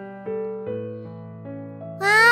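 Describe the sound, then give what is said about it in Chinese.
Sustained, steady musical tones shift in pitch for about two seconds, then a short, bright, rising cat meow rings out loudly at the end. “小猫，你在吃什么呢？”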